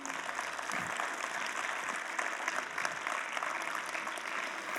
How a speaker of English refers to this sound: Can we put our hands together for the Lord this morning?